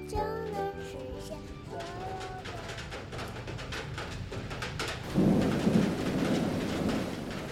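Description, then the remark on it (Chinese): Heavy rain pours in a steady, dense hiss, large raindrops hitting the window of a guard room, with a few faint tonal notes early on, then a deep roll of thunder swells and rumbles loudly through the final seconds. “警卫爷爷一打开窗户，就发现外面呐、啊，哗啦啦的下着好大的雨哦。”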